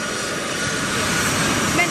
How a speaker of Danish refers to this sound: Så er det her på dansk jord et kæmpestort gråt transportfly. Der står US Air Force 0070 på spidsen, og så er der det amerikanske flag bagpå